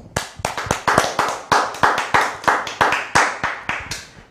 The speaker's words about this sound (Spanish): Pues sean bienvenidos todos nuevamente hoy a este día de Shabbat. Fuerte aplauso, por supuesto.